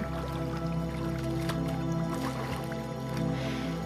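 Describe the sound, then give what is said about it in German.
Gentle water sounds, soft splashing and scattered drips, over a steady low hum, continuous and fairly quiet with no voices. “Entschlossen streifst du dir deine Schuhe und Kleider ab, nimmst ein wenig Anlauf und springst hinein. Das Wasser ist warm und fühlt sich angenehm weich auf deiner Haut an.”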